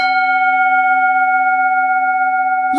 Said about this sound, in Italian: pertanto è giunto il momento di far suonare la campana dello spoiler che da questo momento non ci abbandonerà più fino alla fine della puntata